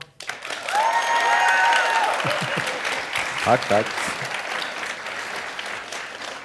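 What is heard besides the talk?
audience applause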